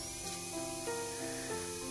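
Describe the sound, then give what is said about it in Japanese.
A dentist's drill at Shinohara Dental Clinic whirs steadily with a hissing spray, its tone holding for two seconds and shifting pitch slightly a few times. No one speaks. “ドリルの音が…”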